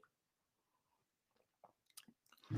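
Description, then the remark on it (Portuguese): A small sip of a drink: faint, wet mouth clicks and slurps in near-silence, ending with a louder, fuller swallow. “de um golinho.”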